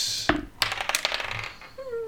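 Dice rolled for initiative clatter across a hard tabletop, a sharp first click followed by a quick burst of rattling bounces that settle within about a second, fairly loud.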